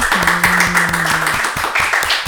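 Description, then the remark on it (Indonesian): Steady, brisk hand clapping to welcome a guest, about five claps per second, continuing throughout. A low sustained hum sits underneath during the first half, then fades out while the clapping goes on. “Tepuk tangan dong”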